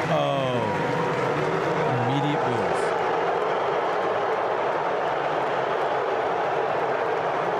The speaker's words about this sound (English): Okay, so they got the military folks audible clapping. Yes, we honor the military. We we're most of us are military.